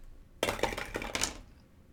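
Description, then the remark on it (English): A wooden die and a red die clatter and tumble across a hard surface for about a second, a rapid burst of bright knocks that settles quickly into quiet. “So the wooden dice is going to be for the blights. The red dice is going to be for the uh, druid.”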